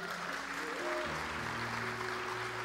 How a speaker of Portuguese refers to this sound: Palmas para os líderes voluntários líderes de departamento.